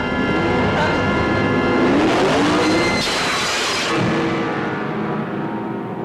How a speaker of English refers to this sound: I think I hear the engine of that car. It's around here somewhere.